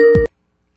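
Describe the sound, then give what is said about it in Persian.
A steady electronic phone-line tone sounds briefly and loudly, then cuts off abruptly after about a quarter second, leaving silence, as a caller's line disconnects during a call-in program. “آقایی در خدمتون هستیم بفرمایید قطع کردی چرا”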